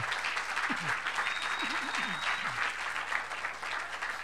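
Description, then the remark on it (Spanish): An audience applauds the Lord steadily, a dense, sustained wash of clapping lasting several seconds, with a few faint voices calling out briefly beneath it. “La obra de Dios se hace con la guianza del Espíritu Santo de Dios un buen aplauso al Señor.”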